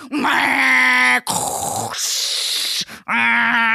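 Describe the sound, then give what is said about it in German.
A person vocally imitates a latte macchiato milk-frothing machine, with a loud droning, groan-like hum, then a sustained airy hiss, then the humming tone again, no words spoken. “geht die Latte Macchiato-Schäumermaschine an und so.”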